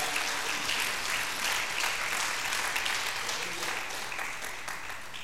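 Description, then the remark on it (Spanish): Sustained applause for God from a large crowd, a dense, steady wash of clapping that holds at an even loudness for several seconds before easing slightly at the end. “Dele un aplauso fuerte a Dios porque Dios es bueno.”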